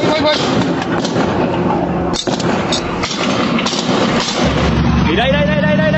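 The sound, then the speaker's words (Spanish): Rapid bursts of gunfire crackle and pop over a loud, noisy background, with muffled voices underneath and a rising engine-like whine near the end, during a street shootout and chase in Matamoros, Tamaulipas. “Nuevamente las balas, nuevamente las persecuciones y nuevamente el terror en Matamoros, Tamaulipas, durante la noche del viernes”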